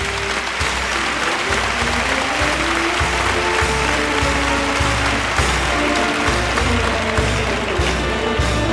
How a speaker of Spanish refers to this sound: Finaliza la vuelta al ruedo Diego Urdiales, que recoge la ovación del público tras cortar las dos orejas de este cuarto toro.